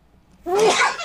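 A single sharp sneeze bursts out after a moment of near silence, starting with a brief voiced intake and ending in a loud, breathy, hissing blast.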